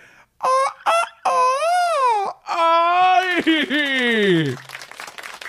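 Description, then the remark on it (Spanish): A voice imitates the strange, warbling crow of a rooster heard at the beach, in several stretched, wavering bursts, rising and falling in pitch before trailing off into faint background noise. “pero ese gallo, ¿qué le pasa?”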